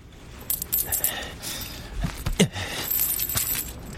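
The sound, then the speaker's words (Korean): Small coins clink and jingle in a few bright bursts as a few coins, 300 won in change, are dropped into a small cloth lucky pouch (bokjumeoni) hanging on a box. No voices. “나는 주머니에서 동전 몇 개, 컵라면 사먹고 받은 잔돈 300원을 꺼내.”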